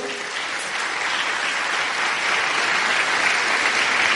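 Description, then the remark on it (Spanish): An audience applauds an invited painter, clapping steadily for about four seconds, a dense, even wash of many hands at a constant loud level with no speech over it. “Un aplauso.”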